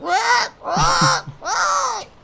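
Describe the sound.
Three loud, harsh parrot squawks in quick succession, evenly spaced, each a raspy, strained cry with no talking around them, as the parrot flies away after being released from its cage.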